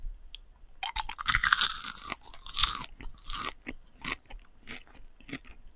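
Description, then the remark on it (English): Loud crunching and chewing as a person eats popcorn in a blind snack-guessing test, a burst of crisp crackly bites followed by a series of softer, irregular chews, with no one talking. “Um, popcorn. Correct.”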